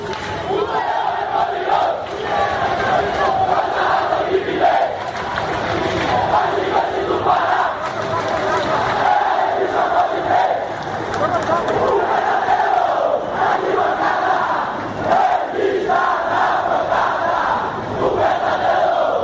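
A large crowd of football supporters sings a chant together to a steady melody, loud and sustained for the whole stretch, voices blending into a dense roaring chorus with rhythmic swells.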